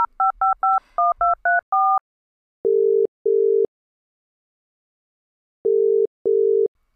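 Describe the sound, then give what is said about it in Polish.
A quick run of about eight touch-tone dialing beeps, each a two-note electronic chirp, followed by two pairs of lower, steady ringing tones separated by silence. No voices. Someone is dialing a phone to order caramel ice cream. “Dobra, dzwonię, zamawiam.”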